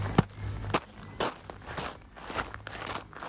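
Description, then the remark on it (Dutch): Quick, irregular crunching of a panicked dog's paws scrambling across a gravel path, a run of gritty steps, fairly soft, with no voices. “Ik wilde snel de ambulance en de hond rende paniekerig over het grindpad.”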